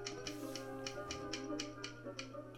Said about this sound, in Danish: Og han har vinduet stående åben, sådan at øh, jordkunsten dernede, han kan høre det, at der bliver skrevet på skrivemaskinen. Og, men det optager han jo over på en båndoptager.